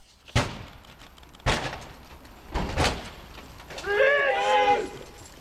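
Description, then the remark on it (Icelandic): Three or four heavy, booming crashes of police breaking down doors during a morning raid on drug dealers, spaced about a second apart, followed by loud shouting from several police voices. “Til að minna á þetta fylgdi fréttunum upptaka af lauruglu aðgerðum þann morgunin gegn eiturlifjasölum hurðir brotnar lauraglan að kalla.”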